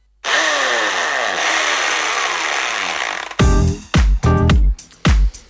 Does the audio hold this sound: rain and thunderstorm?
no